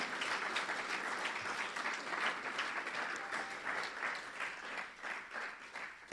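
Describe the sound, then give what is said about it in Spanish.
A crowd breaks into steady, dense applause, many hands clapping together in a continuous rattling wash that holds at a fairly even loudness for several seconds, with no voices over it. “Así que denle un aplauso fuerte para que se despierte el que está al lado suyo.”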